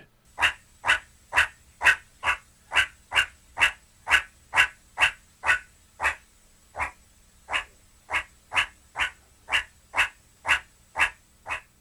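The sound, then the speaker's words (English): Meerkat calls, from a small mongoose found in Africa: a long run of sharp, bark-like yips repeated steadily about twice a second, loud, with one brief pause midway. No voices. “and that is a meerkat. It's a small mongoose found in Africa, and it's the star of many of an animal documentary.”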